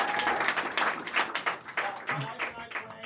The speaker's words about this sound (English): y'all give him a round yeah, of applause. Yeah, all right. Thank you.